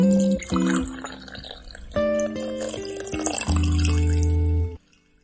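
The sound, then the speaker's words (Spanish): Coffee pours into a cup in a few bursts, with ringing, shifting tones as the cup fills. The sound is clear, then stops abruptly, leaving near silence. “Pero antes, ¿qué te parece si nos tomamos un café virtual y nos contamos novedades?”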